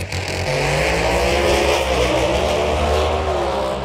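A loud, roaring drag racing car engine revs steadily at full throttle, its deep harmonic growl shifting in pitch across a few seconds, with no voices.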